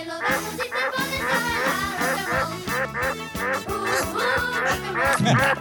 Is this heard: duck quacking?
yes